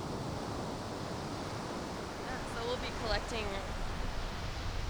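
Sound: ocean waves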